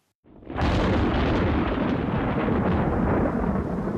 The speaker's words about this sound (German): Unglücklicherweise hält uns der Dauerregen im Hause fest. Die Gewitter, die über uns hereinbrechen, sind gewaltiger und schrecklicher als alles, was ich bisher gesehen habe.